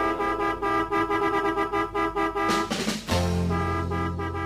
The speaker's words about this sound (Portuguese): E a buzina desta vez eu sei que vai funcionar.